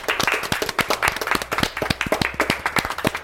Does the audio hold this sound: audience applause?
yes